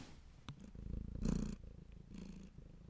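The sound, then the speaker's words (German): A male cat purrs in a steady, rumbling rhythm of soft in-and-out breaths, continuous and fairly quiet, with a brief click near the start and no talking. “Er schnurrt.”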